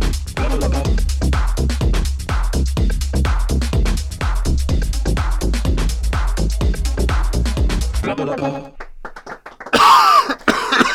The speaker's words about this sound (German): Entschuldigung. Entschuldigung. kennst du das, wenn du die ganze Zeit, wenn, wenn dieser Husten, Hustenreiz kommt und du darfst nicht, weil dieses, dieses grandiose, wunderschöne, einzigartige, wundervolle, naja, Intro läuft